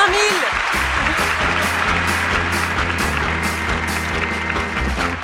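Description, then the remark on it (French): A large live audience of about 500 at a live broadcast from the Palais des Beaux-Arts de Lille cheers and applauds loudly and steadily for several seconds, with dense clapping that pulses in a loose rhythm over a low, tonal background hum. “Mais je ne vous entends pas, où êtes-vous Ah oui, vous êtes 500”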